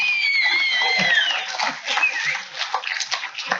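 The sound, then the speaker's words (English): A crowd claps steadily with loud, dense applause, mixed with shouts and a few sharp whistles near the start, continuous throughout. “I just I elicit applause and then I leave.”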